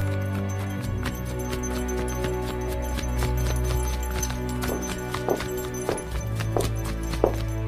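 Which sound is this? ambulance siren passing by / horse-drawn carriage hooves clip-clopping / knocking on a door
horse-drawn carriage hooves clip-clopping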